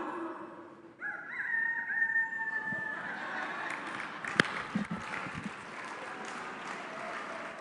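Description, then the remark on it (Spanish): A woman in a church imitates a rooster's crow: a single loud, drawn-out call lasting about two seconds, then the audience breaks into scattered cheering and clapping that continues to the end. “Yo tengo un gallo en esta iglesia. ¿Dónde está mi gallo? Gallo.”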